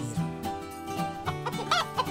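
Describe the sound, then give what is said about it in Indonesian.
A chicken clucks in a quick series of short, nasal bursts, fairly clear, with a sharper, higher squawk near the end and no voices. “Kata ayam dan anak ayam berkata”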